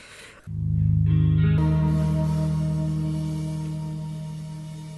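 A slow, melancholy song recording plays: a soft opening gives way to a warm, sustained chord that rings out and gently fades, with no voices heard.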